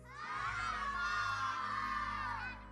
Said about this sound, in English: When I count to three, I want y'all to yell it out to your parents because your parents are listening. They want to hear it. All right, you ready? Yell it out. What you want? One, two, three.